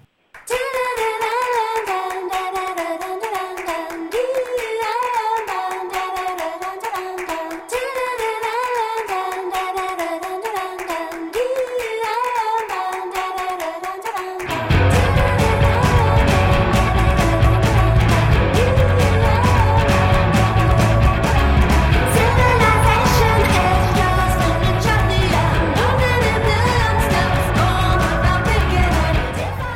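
A song plays with no talking during a break in a program on Heritage Radio Network. It opens with a bright, melodic instrumental line, then about halfway through a loud full band with heavy drums and bass kicks in and carries to the end.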